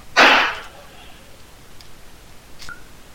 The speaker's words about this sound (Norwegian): Er det et basketak der, for det høres som hele maskina di holdt på å falle?